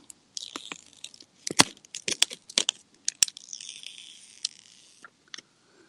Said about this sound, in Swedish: Ni kommer ihåg pixeln va? Hur det lät när jag drog av plasten på den, hur plastet det lät. Lyssna nu här ska ni se.